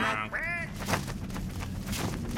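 A couple of nasal, honking goose calls from a mother goose with her goslings sound close together at the start, then give way to softer, scratchy cackling and a rustling background for the rest.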